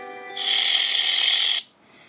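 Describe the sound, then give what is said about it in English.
A person imitates a boa constrictor's hiss: one steady, breathy, high-pitched hiss held for over a second, fairly loud, then cut off abruptly, with no talking. “Hissing like a boa constrictor.”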